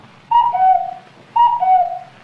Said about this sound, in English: When you hear the beautiful chime, it will be exactly six and seven eighths split seconds past eight o'clock, Eastern Daylight Standard Railroad Western Mountain Central Time. Get ready now. Listen for the chime.